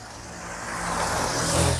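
A truck rumbles past on the road, its engine noise rising and building to a loud peak near the end, with broad road noise throughout and no talking.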